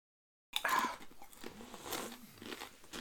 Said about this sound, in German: Ich sage, das schmeckt. Hört man das eigentlich, wenn ich hier Chips am Essen bin? Das hören wir später.